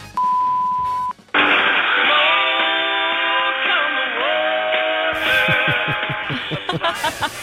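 A steady electronic beep tone sounds for about a second, then a rock song with distorted guitar and drums plays loudly, thin and band-limited like audio heard down a phone line.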